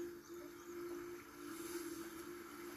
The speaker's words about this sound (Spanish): Te dejo con esto, con el mar.